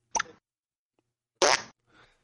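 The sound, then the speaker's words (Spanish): A voice imitates the sound in the game Doom of tearing an eye out of a fat monster: a wet, squelchy popping sound, a short smacking burst, a pause, then a louder, longer juicy squelch, trailing into a faint breathy tail. Clear, with no other talk. “A mí me encanta otra cosa del Doom, que es cuando le, arrancas un ojo a los pichos gordos y hacen...”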